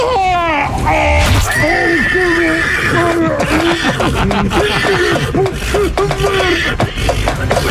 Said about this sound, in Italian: No, no! questa furia, lascia stare il mio cavallo!